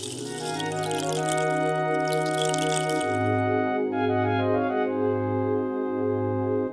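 A rain stick pours out a soft, grainy cascade of rattling beads for about three seconds, layered over sustained, melodic music that carries on alone once the rattle fades.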